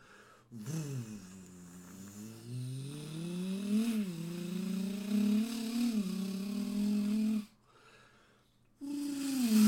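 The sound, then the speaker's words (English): A person imitates a revving V8 engine with their voice, a long buzzy rumble that rises and climbs in pitch over several seconds, breaks off briefly, then resumes loudly. “And then you also do this shit, like you know, when you have like a you know like a V8 motor, V V8 engine, like a.”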